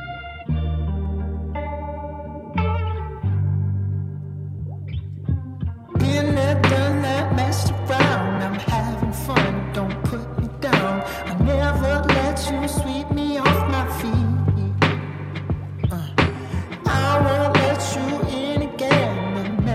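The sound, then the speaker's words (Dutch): A pop song plays loudly with no voices, opening on sustained synth chords before the full band with steady drums kicks in around six seconds and carries on. “Dus dat en gewoon een lekker nummer. Mm, nou, daar gaan we dan eh, nou, lekker naar luisteren.”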